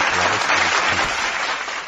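A burst of recorded crowd applause played from a soundboard, a dense steady patter of many hands clapping at full loudness throughout, with no one speaking over it.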